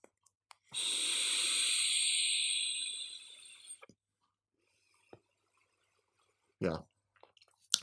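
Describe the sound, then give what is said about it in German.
A long, airy hissing exhale of e-cigarette vapor from a Jule Ground 3 with an Oreo-cookie-flavored liquid, lasting about three seconds, steady then fading, followed by a few faint clicks and a brief breathy puff near the end, with no talking. “dann dampft man dieses Aroma, wenn man Dampfer ist und man ist glücklich.”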